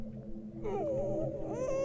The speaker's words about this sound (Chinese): 结果他们刚扔完，我们三零幺寝室和三零四寝室就听见了婴儿的哭声，而且那个哭声感觉离我们三零幺特别的近。